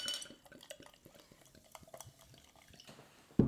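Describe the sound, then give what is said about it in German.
Beer from a swing-top bottle is poured into a glass, heard as a busy run of small clinks, taps and drips with a faint fizzing hiss, ending in a sudden louder knock. “Fertig eingeschenkt.”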